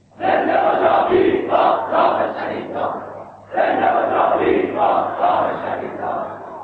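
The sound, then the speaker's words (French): A large crowd, guided by very politicized young people who lead the slogans, chants political slogans in unison: two loud rhythmic phrases separated by a brief pause, voices massed and forceful with a steady low hum underneath. “Les slogans reprennent, mais ce n'était pas une foule hystérique, absolument pas.”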